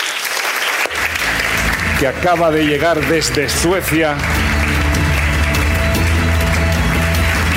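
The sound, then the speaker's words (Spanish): An audience in Málaga breaks into loud, sustained applause welcoming a guest being introduced, a dense steady patter of many hands clapping that continues to the end, with a man's voice speaking over it partway through. “Señoras y señores, un fuerte aplauso”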